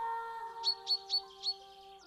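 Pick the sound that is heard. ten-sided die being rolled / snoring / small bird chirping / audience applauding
small bird chirping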